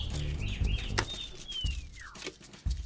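City birds on Haraldsgade chirp and whistle, heard through an open window, with a thin descending whistle and short tweets over a low rumble of traffic and clattering background noise.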